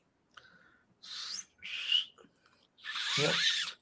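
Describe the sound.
Someone tries to imitate a referee's whistle by mouth, producing four short, airy blasts with only a faint whistling tone, the last one longest and loudest. No one speaks.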